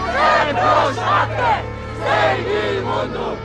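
A crowd of protesters in Poland demonstrating against a new strict abortion law shouts in loud, rhythmic bursts, voices rising and falling together in chant-like waves over a steady low hum, with no clear individual speech.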